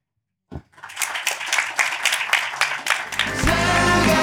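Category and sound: crowd, audience clapping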